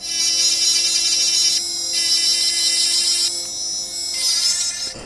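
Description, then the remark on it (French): A dental lab micromotor rotary tool, a Dremel-type tool made for dental prostheses, whines steadily as it scrapes and polishes a cast crown, its high-pitched tone dipping and shifting briefly a few times as it bears down on the work, with no voices. “Vous reprenez le micro moteur.”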